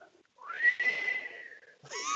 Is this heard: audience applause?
no